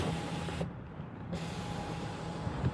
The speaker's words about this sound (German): Hast du das gehört? Ja, ich höre Wind. Mein Auto, weil so richtige krasse Windböen. Mein Auto wackelt richtig. Warte mal, ich mache mal einmal Fenster ein bisschen runter.